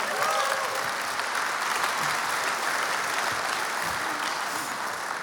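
Steady audience applause for a woman fills the whole stretch, a dense, even wash of many hands clapping at a constant loudness with no voices standing out.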